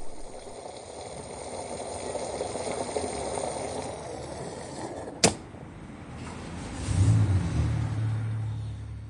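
A steady hiss of rain and wind, then a sharp click as the key is turned in the ignition, and the car Rasty's engine turns over into a low, steady rumble that keeps running as it drives off through the wind and rain toward a garage. No one speaks.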